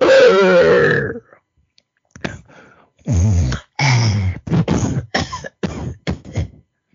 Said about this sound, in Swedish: Han har somnat där han fallit i havsbrynet, bland stenarna. Hans öppna mun gapar mot gryningen. Ljud som ur helvetets nedersta avdelning tränger upp ur hans hals.